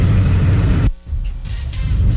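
Low, steady rumble of congested road traffic in Cuiabá, Brazil, backed up after a car hit a motorcycle in front of the bus station, toward Chapada and reaching Miguel Sutil; engines idle and creep, briefly dipping before the dense vehicle noise swells back up; no one speaks.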